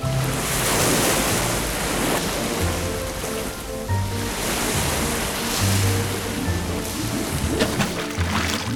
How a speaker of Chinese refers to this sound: 最后，他们在某一天的早晨，终于来到了一片广阔无垠的蓝蓝的海洋，那是看不到尽头的大海哦。